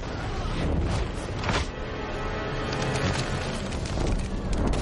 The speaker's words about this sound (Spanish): Una explosión lo derriba.